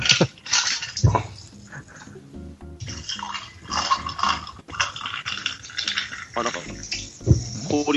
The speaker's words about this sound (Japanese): 氷の音がする。